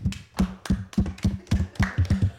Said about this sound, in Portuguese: Depois dessa, vamos dar um aplauso para ele aí, vai.